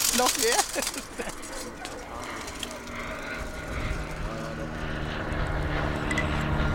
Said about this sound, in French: Je sais pas, je suis pas intéressé par ce genre de coucou, ils sont trop petits pour moi. D'après moi, c'est un Diamond Kataner.